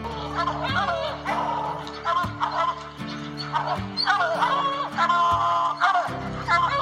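Hunting dogs chasing a bear bark and bay over and over, loud, their drawn-out yelps overlapping in a steady chorus against a constant low droning background.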